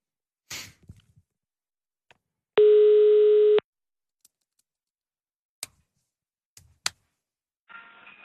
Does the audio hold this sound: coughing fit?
no